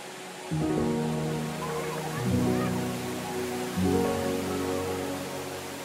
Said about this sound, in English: This waterfall, called Rain Vortex, is the centerpiece of Jewel Changi Airport, a nature themed entertainment and retail complex with a glass and steel dome.